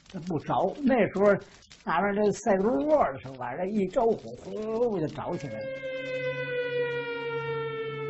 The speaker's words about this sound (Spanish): Bajo el inquietante aullido de las sirenas que anunciaban incursiones aéreas, Puyi y su familia escaparon, presas del pánico, durante la noche del 11 de agosto.